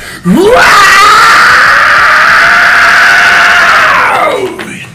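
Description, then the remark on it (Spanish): A single loud, high-pitched scream held for about four seconds, rising sharply at the start, sustained steadily, then trailing off, alone with no talking. “Bueno, voy a hacer un scream, que el scream, es agudo y grito, ¿no?”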